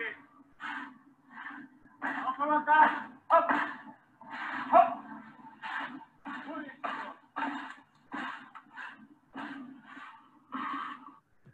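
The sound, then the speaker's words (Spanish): Sled dogs used for dog-sled rides bark over and over in a steady, eager rhythm, about a dozen fairly loud yelps and barks that sometimes overlap, with a faint low hum underneath. “También lo que son paseos en trineo con perros.”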